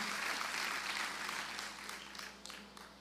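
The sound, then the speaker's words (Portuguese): An audience applauds the Lord Jesus Christ, a dense wash of clapping that starts full and gradually thins and softens over a few seconds, with scattered individual claps standing out near the end. “Oh, aplaude o Senhor Jesus Cristo e a, e a, e a palavra de bênção da minha mãe.”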